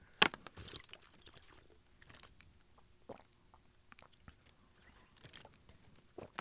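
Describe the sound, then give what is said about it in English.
A plastic water bottle crinkles in irregular crackly bursts as someone gets a drink of water, with a sharp crunch near the start and scattered softer crackles after, and no one speaking. “You're going to hear the crinkling of my bottle here.”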